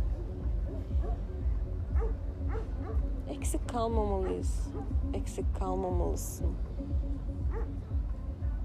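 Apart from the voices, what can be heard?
dog barking loudly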